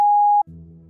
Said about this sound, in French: Merci de laisser un message après le bip sonore.